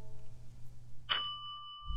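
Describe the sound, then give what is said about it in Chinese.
A doorbell rings once downstairs: a sharp metallic ding that leaves a clear, high chiming tone hanging until the end, over a quiet low hum. “门铃声从楼下传上来，拉拉侧耳倾听，有人起身离开餐桌，走过去开门，是娜家来了。”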